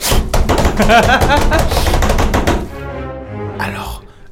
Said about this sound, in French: abat lourdement sa main gantée de cuir sur la porte en bois et hurle le nom du collège des mages. Allez-y. Abat lourdement sa main sur la porte en bois. Plusieurs fois.